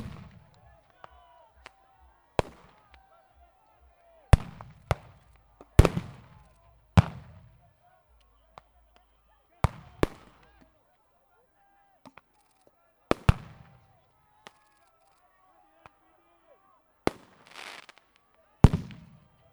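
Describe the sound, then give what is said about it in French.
Grenade explosions at a protest go off again and again at irregular intervals, loud sharp bangs each trailing into a brief echo, over a low murmur of crowd noise in the background. “Il y a un mois, il y a des moments, les grenades explosaient sans interruption, comme à Sivins, comme à Notre-Dame-des-Landes ou ailleurs.”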